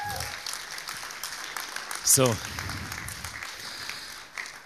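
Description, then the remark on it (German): Audience applause for two people being praised fills the whole stretch as a steady, dense crackle of many hands clapping, briefly topped by a short voiced exclamation, with a single spoken word near the start. “Ich möchte einfach das auch mal wertschätzend sagen über euch beide und ich denke, ihr habt einen Applaus verdient.”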